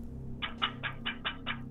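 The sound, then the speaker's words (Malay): Six quick, evenly spaced taps, a voice imitating knocking on a window, repeat in a steady rhythm over a low constant hum, moderately loud. “Ada bunyi macam benda kentut tingkap.”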